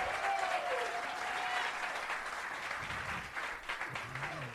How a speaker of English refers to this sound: Guys, give yourselves a round of applause. Let the internet know we got a full main room tonight.